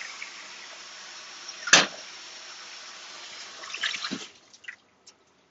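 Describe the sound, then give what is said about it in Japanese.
Water runs steadily into a kettle being filled to boil, with a continuous hissing rush, broken once by a sharp clank, then the flow stops and a few light knocks follow. “これはちょっと、レットに、水を入れて、本日は実行させようと思います。”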